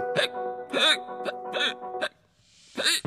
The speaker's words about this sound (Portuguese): Os soluços são contrações involuntárias do nosso principal músculo respiratório, o diafragma causam o encerramento das nossas cordas vocais, o que produz o som característico do ik.